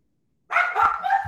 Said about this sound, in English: Yeah, sorry. My kids just came home from school. The dog is barking.